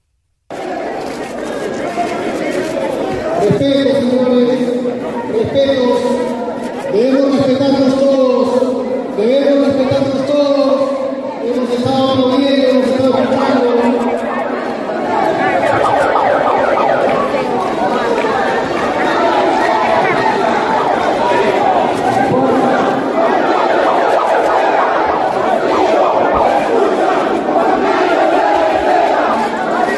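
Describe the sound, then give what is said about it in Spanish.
A large crowd at a coliseum shouts loudly and continuously at someone's entrance, with rhythmic, repeated chant-like bursts in the first half giving way to a dense, steady roar of many voices. “Y su, su entrada, escúchenla, le ponen música para que la televisión no capte los gritos de la gente.”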